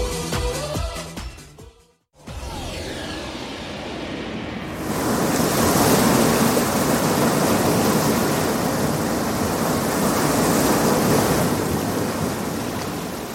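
Ocean surf breaking on an empty beach at dawn, before sunrise, at Seogwipo, Jeju: a steady, enveloping roar of breaking waves that swells up after a brief burst of music and a moment of silence, then continues unbroken.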